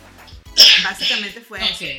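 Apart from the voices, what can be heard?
sneeze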